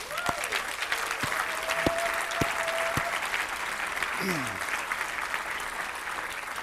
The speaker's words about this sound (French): Et moi, je pense que ça mérite une bonne main d'applaudissement.